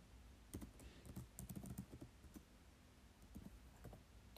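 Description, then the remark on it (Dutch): Quick, uneven bursts of typing on a computer keyboard, fairly quiet, with clicky keystrokes clustering in flurries and short pauses between them; no one speaks. “Ik ga ook gewoon eventjes erbij schrijven”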